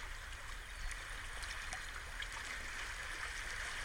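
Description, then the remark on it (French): Soft, steady wash of gentle sea waves lapping on a beach, a continuous quiet hiss and ripple with no voices over it. “l'eau qui part sur la plage et qui revient à la mer, comme une danse infinie.”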